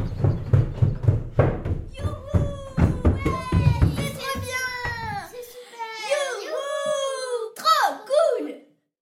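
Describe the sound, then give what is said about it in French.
Little girls shout and shriek as they play, their high, excited voices sliding up and down in pitch. A low rumble runs underneath at first, then the loud cries continue on their own. “Mais pourquoi ces petites filles crient-elles Parce qu'aujourd'hui, elles s'apprêtent à devenir grandes sœurs.”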